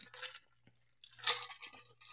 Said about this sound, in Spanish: Disculpe, estaba tomando agua.